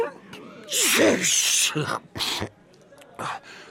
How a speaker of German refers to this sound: so dass er furchtbar niesen muss.